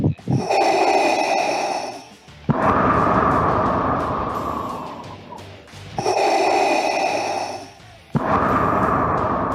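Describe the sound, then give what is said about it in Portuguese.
Loud, close breathing straight into a microphone, with long rushing inhales and exhales alternating in a steady rhythm, harsh and noisy, with no talking. “É, mas você tá respirando em cima.”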